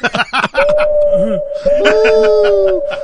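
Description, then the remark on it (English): A voice imitates a ghostly siren with a long, steady hooting wail much like an owl, held for a few seconds while other voices chatter and laugh underneath. “This is the ghost siren? That's it. That's Sounds an awful lot like a fucking owl.”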